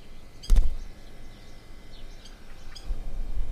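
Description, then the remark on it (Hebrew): A sharp rustling burst as a bird is released and flies about three meters before landing on a branch, then a few faint, high, scattered bird chirps over steady outdoor background noise, with no one speaking. “אז אה, זה שחור, תכירו, שחור שהולך לשחרור.”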